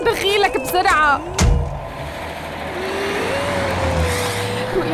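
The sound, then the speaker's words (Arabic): A taxi engine revs and pulls away, hurrying to the hospital, its steady hum rising in pitch over several seconds after a brief burst of voices and a sharp thump at the start. “تاكسي تاكسي يا تاكسي تاكسي طلعي طلعي اختي طلعي دخيلك بسرعه على المستشفى”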